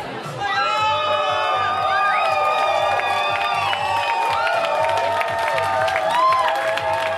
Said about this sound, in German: Es war bereits nach 23 Uhr Ortszeit. Im noblen Hotel Radisson im Zentrum Tallinns hatten Mitglieder der regierenden liberalen Reformpartei ungeduldig auf ihre Smartphones geblickt, als schließlich Jubel aufbrandete.